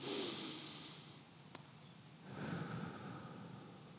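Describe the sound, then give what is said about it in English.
An airy, deep breath drawn in through the nose, hissing softly for about a second, followed by a quieter pause and a second, gentler rush of breath. No one speaks. “Just some deep breaths. Deep breath in.”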